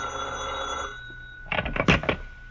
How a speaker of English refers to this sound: It's a few hours later, and the tracer is in his office, waiting to hear the results of Mike Clancy's search of the riverfront. His telephone rings.